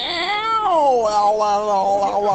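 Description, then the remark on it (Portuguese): A cat yowls loudly while mating, in one long, wavering caterwaul that slides down in pitch and keeps warbling for a couple of seconds, with no voices present. “É, recebemos um áudio de um gato transando, olha.”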